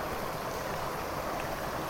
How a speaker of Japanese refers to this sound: ああ川の水の音が大きい